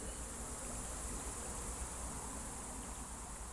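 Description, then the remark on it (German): A dense, continuous chorus of countless crickets chirping, steady and fairly loud throughout, with a faint low murmur of the Günz river flowing underneath, amid meadows at Liebentann between Obergünzburg and Runsberg; no voices. “In Liebentann gluckst und meandert die Günz leise vor sich hin, begleitet vom Zirpen unzähliger Grillen.”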